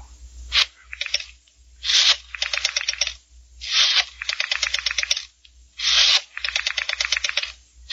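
A rotary telephone being dialed: four digits in turn, each a brisk scraping wind of the dial followed by a fast, even run of ratcheting clicks as it spins back. No voices. The number dialed is the phone number of a blackmailer.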